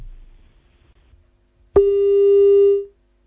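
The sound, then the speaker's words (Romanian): After faint line hiss, a telephone busy tone cuts in abruptly as a phone call drops: one loud, steady electronic beep, held for just over a second before stopping cleanly. No one speaks. “Ah, cred că l-am pierdut pe... Hai să refacem această legătură telefonică, nu-mi dau seama uh, ce s-a întâmplat.”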